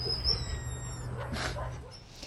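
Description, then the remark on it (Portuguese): A police sniffer dog whimpers with high, thin whines and a few short yips over a steady low background hum as it is reunited with a police officer who was wounded in an attack by criminals. No one speaks. “Um dos PMs atingidos na ação se emocionou hoje ao reencontrar o cão farejador que estava com ele no momento do ataque dos criminosos.”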